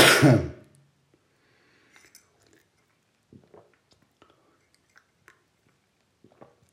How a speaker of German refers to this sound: denk nicht, dass ich dich imitiere oder so. Ich habe wirklich so einen Husten. Also nicht, dass du jetzt irgendwie denkst, das macht der mich hier nach oder sowas.